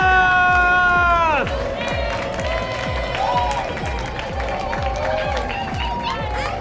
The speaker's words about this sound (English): Again, somebody clap for Jesus!